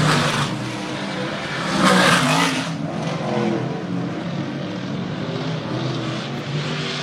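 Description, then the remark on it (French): Loud race car engines roar past on a race circuit on a Tuesday evening, one surging in a brief burst before settling into a steady, broad mechanical drone of more cars running. “Euh, ben, quand même un bon mardi soir être une piste de course pour attendre des moteurs comme ça.”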